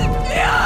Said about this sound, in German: Ein zweiter Schrei